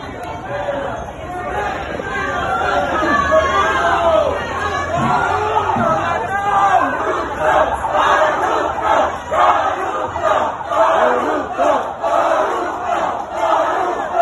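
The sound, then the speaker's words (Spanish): A large crowd of patients and people at a hospital boos the president, shouting and chanting in unison, loud and continuous, with overlapping jeering voices forming a dense, angry roar that rises and pulses in rhythmic bursts. “los pacientes y la gente que estaba en el hospital, pues ha empezado a pifiar al presidente.”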